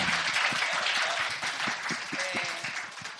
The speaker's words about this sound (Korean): 우리 이 자리에 참석하지 못했지만 우리 그 남동생한테도 박수 한번 쳐주세요.